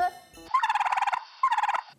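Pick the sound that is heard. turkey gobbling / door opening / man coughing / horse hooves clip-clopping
turkey gobbling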